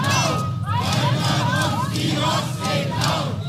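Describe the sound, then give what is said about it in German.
A large protest crowd chants together, many voices shouting in a steady, repeated rhythm that stays loud and dense throughout, with rising and falling shouted syllables over a constant roar of the crowd. “Genau daran musste ich nämlich denken, an diese Proteste, als wir über Boote als Gefahr für Seeras gesprochen haben bei der Vorbereitung.”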